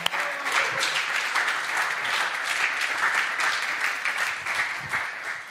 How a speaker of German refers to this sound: jetzt ein bisschen was berichten und wir geben ihr einen riesen Applaus, weil es ist das erste Mal, dass sie predigt heute.